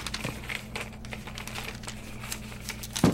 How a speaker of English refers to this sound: accidentally knocked your cookbook off the table. Oh dear, paper's flying everywhere. Don't worry, I'll pick them up.